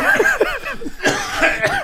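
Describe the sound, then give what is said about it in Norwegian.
A fairly loud cough mixed with short laughing, voiced bursts, with a sharper, breathy burst partway through; no clear speech. “På neste spørsmål, du hostet.”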